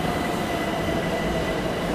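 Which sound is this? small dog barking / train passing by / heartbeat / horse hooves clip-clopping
train passing by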